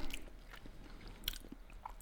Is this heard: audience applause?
no